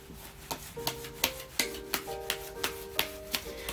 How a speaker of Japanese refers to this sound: はーい今カードシャッフルしてるので少々お待ちくださいね